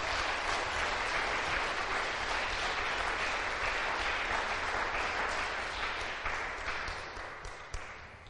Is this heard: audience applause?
yes